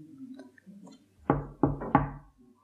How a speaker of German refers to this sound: Das Klopfen kam und wir zuckten simultan zusammen. Wer kann das sein?